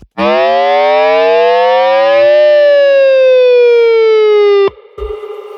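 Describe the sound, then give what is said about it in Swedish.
A loud self-oscillating old ADA flanger pedal, set off just by pressing its button without playing, howls with a dense stack of harmonics, its pitch rising then slowly gliding down like a plane taking off, for about four and a half seconds before cutting off abruptly. “som, som har det här att den kan själv oscillera och det låter som ett plan som gör en take-off.”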